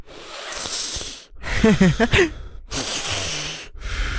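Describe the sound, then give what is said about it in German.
Someone imitates a sleeper's loud, heavy breathing, like a person suddenly breathing loudly mid-sleep on a sleeping mat in a room shared by several people: several long, hissing breaths separated by short pauses, one with a rough, voiced, snore-like rasp. “die einfach mitten im Schlaf auf einmal voll laut werden, Alter. Ja, die kriegen direkt einen Boxen. dann so laut atmen”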